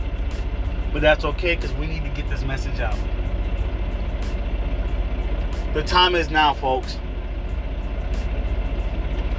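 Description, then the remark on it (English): A truck engine idles steadily, a constant low rumble filling the background while a man sitting inside the truck speaks in short bursts over it. “You guys might hear the truck in the background,”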